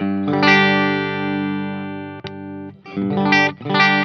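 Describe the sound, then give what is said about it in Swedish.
Electric guitar chords played through an effect set to parallel mode, a long sustained strummed chord ringing for over two seconds, then a few quicker, choppier chord stabs, loud and full with no voices. “just när man tar ackord så känns det som att det blir lite, lite kluckigare med den här Ja, parallell.”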